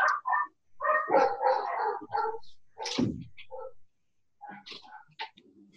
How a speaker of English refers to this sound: I apologize for my dogs. Is there someone at the door you need to go and check or something?